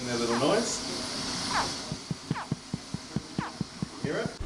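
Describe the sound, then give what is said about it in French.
Several short, high, downward-sliding chirps from hatchling crocodiles still in their eggs at a crocodile farm in Australia, calling their siblings to hatch at the same time, repeating every second or so, with a steady run of soft low thumps and a faint background murmur. “Vous les voyez éclore Si vous rapprochez votre micro, vous les entendrez pousser un petit cri.”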